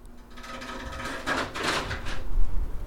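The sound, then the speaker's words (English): An air conditioner makes a harsh, grinding mechanical noise: a steady droning hum broken by two raspy scraping bursts, then a rougher rumble that grows louder toward the end. “Oh, that was a bad sound. I wonder if my air conditioner just ate something.”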